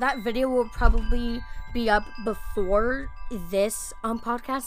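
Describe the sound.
Wind chimes ring softly outdoors on a beautiful day, their sustained tinkling tones lingering in the background while a person talks steadily over them.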